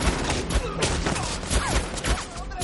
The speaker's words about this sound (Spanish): Los demás se refugian y disparan.